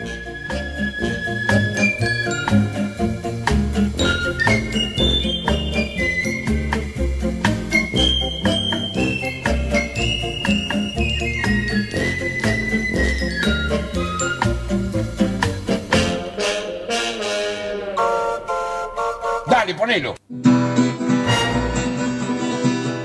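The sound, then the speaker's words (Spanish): A bouncy parody of a pop song, made by a man from Córdoba, with Spanish lyrics about food, plays loud and continuous, with a busy, bright arrangement full of chiming tones, then briefly cuts out near the end before the music resumes with a thinner sound. “La versionó, la mordidita y le hizo esta letra. La vamos a escuchar ahora.”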